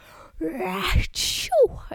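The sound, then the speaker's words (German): A voice imitates the drawn-out, slow-motion sneeze of a woman driving a car: a wavering, rising intake of breath builds up, then a long breathy burst of noise, followed by a short high squeak. “Und sie hat genießt und man hat richtig gesehen, wie sie versucht hat zu kämpfen, ihre Augen offen zu lassen.”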